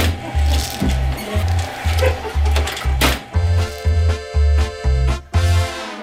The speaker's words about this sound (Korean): 뻥튀기 기계 소리보다도 목소리가 더 큰 사장님이 있습니다.